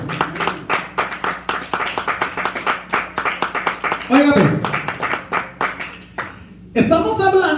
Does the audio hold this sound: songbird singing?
no